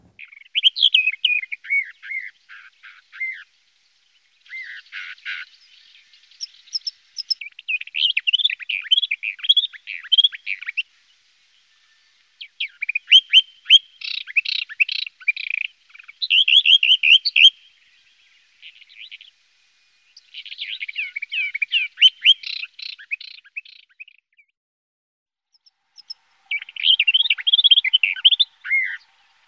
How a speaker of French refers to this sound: Non. Ça, c'est la fauvette.